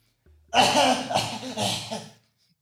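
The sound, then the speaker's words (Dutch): An old man coughs in the distance in a short fit of about three harsh, raspy hacks lasting under two seconds, with no other sounds around them. “Een enkele baby weent nog en een oude man kucht in de verte.”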